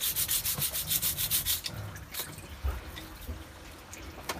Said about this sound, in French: Bon, bah écoute, je vais te le dire comme ça. Tu, donc tu nettoies à la brosse.